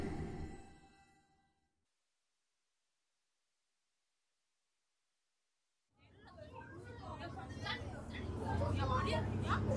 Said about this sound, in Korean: 번화가로 가는 버스를 탔다. 시험이 끝나 들뜬 우리 학교 교복들로 버스 안은 시끌시끌했다. 다들 누군가와 떠들고 있었다.